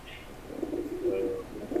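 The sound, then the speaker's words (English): About 100 homing pigeons coo in a low, throaty murmur, several soft warbling calls overlapping in a steady, continuous burble with no one speaking, on a road at an exit off I-95 in Daytona Beach, Florida, after a crate carrying them fell off a truck. “Uh, an exit off of I 95 had to be closed after uh, like around 100 homing pigeons fell off of a truck and had to be moved off the street”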